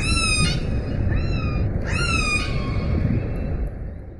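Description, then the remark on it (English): Three high, tonal orca signature whistles, which orcas use as names, with bright harmonics, each bending upward then holding steady, over a constant low rumbling hiss. The first and last are strongest, the middle one fainter. “Like dolphins, specifically like bottlenose dolphins, they have signature whistles which act as quotes their names.”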